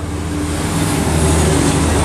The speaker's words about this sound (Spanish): Puedes pasar por la vía porque escuché la bulla de los carros que no me deja hablar y podría sufrir un accidente.